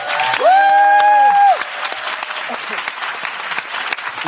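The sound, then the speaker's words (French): A live show audience claps steadily throughout for a team member who has worked with the show for four years. The applause is dense, with a loud sustained whoop or whistle ringing out over it at the start before fading into continuous clapping. “Donc, si vous pouviez faire un tonnerre d'applaudissements parce qu'elle a fait un travail de titan avec nous depuis quatre ans,”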